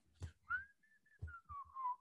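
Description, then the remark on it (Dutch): Someone waiting with numbered tickets in a quiet waiting area whistles a short, wandering tune, the clear tone sliding between held notes, with a few dull low thumps scattered around it. “Stop ermee interesseer me niet dat je kunt fluiten, niet ja, fluiten.”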